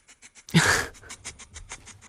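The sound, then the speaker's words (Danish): A flying fox bat from the Luby Bat Conservancy sniffs rapidly and rhythmically at the camera, quick breathy snuffles in a steady series, with one louder rustling burst near the start. “Den snuser til kameraet.”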